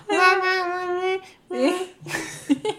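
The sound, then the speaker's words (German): An adult voice imitates a baby's babbling, starting with a long, drawn-out cooing vowel and then breaking into a few short, bouncy nonsense syllables, fairly loud. “genau so. Genau so wird er reden, genau.”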